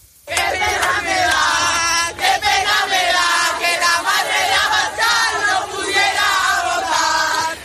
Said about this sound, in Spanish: Esto exactamente, exactamente eso, pero en vez de Abascal, Ayuso es lo que le corearon a la presidenta de la Comunidad de Madrid en la Complutense